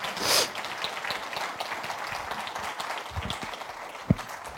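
A crowd claps together in a dense, steady patter of applause that fades a little over a few seconds, with a sharp burst near the start and a single louder clap toward the end.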